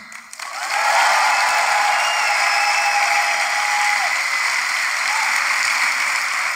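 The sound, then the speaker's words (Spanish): An audience breaks into loud, sustained applause that swells within the first second and holds steady as a dense wash of clapping, with faint cheers mixed in. “Si, si tienen el Espíritu Santo, aplaudan con animación.”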